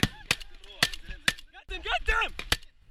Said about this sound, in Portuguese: As imagens são de uma câmera acoplada à roupa de um dos terroristas e mostram os extremistas do Hamas cruzando a fronteira entre a faixa de Gaza e Israel. Os primeiros tiros são disparados.